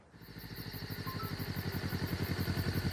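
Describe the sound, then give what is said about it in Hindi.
A motorcycle engine sputters to life late at night and settles into a steady, throbbing idle, its rapid rhythmic pulses loud with no one speaking. “इतनी रात को बाइक लेके कहाँ जा रहा है”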